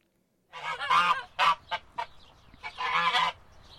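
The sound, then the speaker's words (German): A goose cackles and honks in a quick, excited run of nasal calls, with short bursts clustered together and a longer chattering stretch at the end. “Deshalb hat sie so schnell gesprochen, dass sich das fast wie mein Geschnatter angehört hat.”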